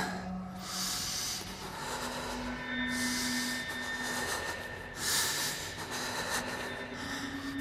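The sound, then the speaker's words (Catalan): Loud, heavy breathing, with repeated rough inhales and exhales in a strained, irregular rhythm over a low steady background hum. “Respira.”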